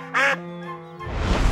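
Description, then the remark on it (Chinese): Two ducks beneath lotus leaves: a loud, nasal duck quack bursts out, then trails into a drawn-out buzzy call, followed by a rising rush of rustling, splashy noise. No one speaks. “最后，在一片荷叶下找到了和乌龟许俏俏在聊天的两只鸭子。”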